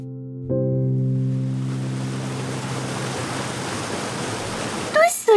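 A loud, steady roar of rushing water from the Nojian waterfall, in the countryside around the city of Khorramabad, fills the scene without pause, opening briefly with a humming tone and ending with a few short, high-pitched chirps.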